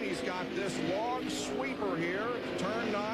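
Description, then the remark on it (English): Stock car engines on a road course drone and whine steadily, their pitch rising and falling as they accelerate and shift, with a voice talking over the roar; Mark Martin runs a couple of car lengths behind. “Mark Martin remains a couple of car lengths behind.”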